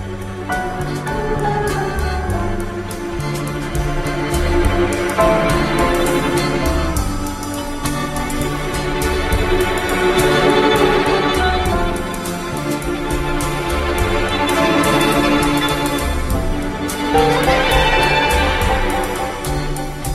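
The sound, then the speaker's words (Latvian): A musical piece plays continuously during a musical break, at a steady, fairly loud level, with full harmonic instrumentation, a driving rhythm, and swelling phrases, and no talking over it. “Atkal ir laiks uh, muzikālajai mhm. pauzītei. Mm. Klausamies um, skaņdarbu.”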